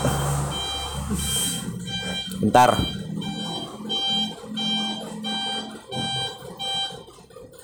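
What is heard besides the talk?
truck reversing beeps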